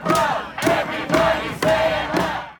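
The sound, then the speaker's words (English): A protest crowd outside an event chants union slogans such as "Union strong" in unison, loud, with about five strong shouted beats in a steady, driving rhythm. “Like you could hear the chants and you could make out what they were saying.”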